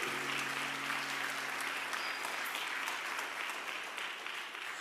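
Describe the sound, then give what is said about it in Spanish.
Steady audience applause, a dense wash of many hands clapping at a fairly even level for several seconds, with no voices standing out above it. “Aplaudo si quiere.”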